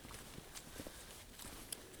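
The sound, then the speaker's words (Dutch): Quiet footsteps crunch along outdoors as people walk slowly back to the village, a handful of soft, slightly uneven steps over a steady hiss of open-air background noise, with no voices. “terug naar het dorp lopen.”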